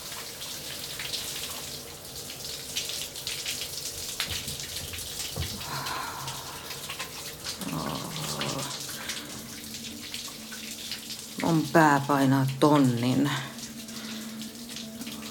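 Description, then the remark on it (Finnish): A shower runs steadily the whole time as a woman showers at home, a constant hiss of spraying water, while a voice speaks briefly over it in the middle and again more loudly near the end. “Nainen pakenee kotona vallitsevaa koronahärdelliä ja etähärväystä suihkuun.”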